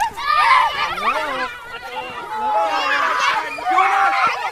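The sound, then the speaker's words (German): Excited children's voices shout and squeal over one another in a lively burst of romping games with tussling, running and hopping, such as British Bulldog, Bauer und Kuh, Blutgrenze and Feuer, Erde, Luft, with overlapping high-pitched calls and babble at a loud level. “Alles Tobespiele mit Rangeln, Rennen und Hüpfen.”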